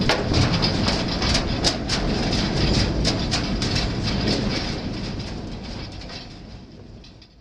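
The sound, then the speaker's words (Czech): A miners' cage runs in a shaft with a loud, steady mechanical rumble and repeated metallic clacks at an irregular rhythm, slowly fading toward the end. No one speaks. “Jak taková klec zní, slyšíte, vážení posluchači, v podkresu.”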